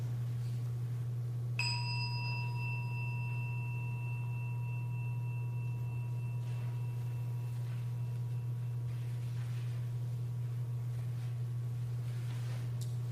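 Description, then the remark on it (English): A single meditation chime is struck once, its clear ringing tone slowly fading over many seconds above a steady low electrical hum, with no voices. “As we listen to the chime, let us remember our connection to each other and the world around us.”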